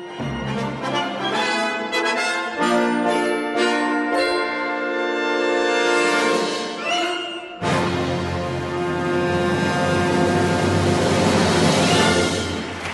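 A short musical jingle plays on its own, no voices: bright, ringing melodic notes for several seconds, then a fuller, denser burst of sound that stays loud until it ends.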